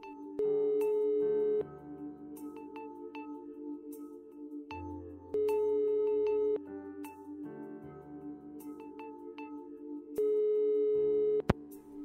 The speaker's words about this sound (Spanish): Lo único que me quedaba era llamar al, móvil de mi padre y esperar a que alguien lo cogiera.